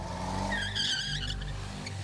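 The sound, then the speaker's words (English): A truck engine growls with a deep, steady rumble as it passes, while high squealing tones like tires or brakes rise briefly over it. No voices are heard. “Through the glass, you saw the truck of the oil man, even though there is no driver, follow after him. Its engine growling and that reverberation filling your bones with terror as it passes.”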